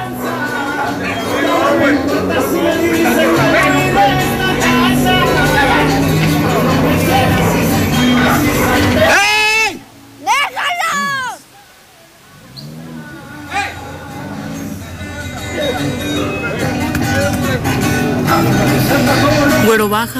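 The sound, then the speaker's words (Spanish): A dense, loud crowd of voices yelling and clamoring over each other, with a brief drop in the middle before the commotion resumes, played back from a video recorded by a neighbor. “Que se escuchan los gritos, se escucha como...”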